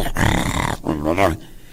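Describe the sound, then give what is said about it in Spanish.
A person imitates with their voice a dog baring its teeth and snarling to dominate a rival: two loud, raspy growling bursts, the second rising in pitch before cutting off. “Hay algunos que nomás lo hacen para dominar a su contrario y, pelan los dientes, ¿eh? Si te has fijado que le hacen así.”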